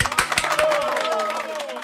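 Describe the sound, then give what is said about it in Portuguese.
A short burst of applause, many hands clapping quickly and densely, with a faint voice-like cheer or tone gliding underneath. “Palmas, palmas.”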